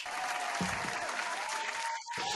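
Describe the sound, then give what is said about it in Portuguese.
A studio audience applauds to welcome new Twitter followers, a dense, steady wash of clapping that fills the whole stretch at a fairly loud level, dipping only briefly near the end before resuming. “E vamos anunciar os nossos novos uh, seguidores com um forte aplauso da nossa audiência, agradecendo desde já o vosso follow.”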